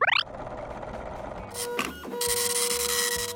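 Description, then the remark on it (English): A machine in the other room fires up with a short rising chirp, then settles into a steady mechanical whirring and clattering, much like a printer running, growing louder and busier near the end. “All right, I hear the mathematic machine firing up in the other room.”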